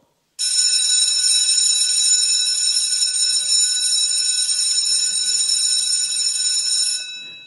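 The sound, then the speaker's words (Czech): A loud electric school bell rings continuously for about seven seconds, a steady metallic clatter with no talking, then abruptly stops; the bell is played during a sermon. “A eh, abychom neměli zítra takový veliký šok, tak já jsem se rozhodl dnes na kázání už jeden zvonek použít.”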